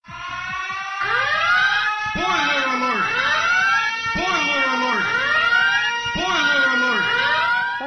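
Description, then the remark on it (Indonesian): A loud electronic warning tone marking a spoiler, with repeated rising sweeps, roughly one per second, blaring steadily like an alarm or siren for several seconds with no talking. “jadi sebaiknya lo baca dulu tapi kalau kekeh lo masih mau dengerin silahkan tunggu sampai na setelah nada berikut”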